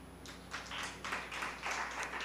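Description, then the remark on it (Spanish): An audience applauds the Lord together, a steady wash of many hands clapping in loose rhythmic surges at moderate volume with no talking over it. “Denle un fuerte aplauso al Señor.”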